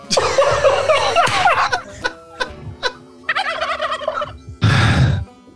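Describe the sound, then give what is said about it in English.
A turkey gobbles loudly in several rapid, rattling bursts over about five seconds, with a harsh, noisy final burst near the end. “how many turkeys would I need to equate to the same weight as Liverpool's Mo Salah?”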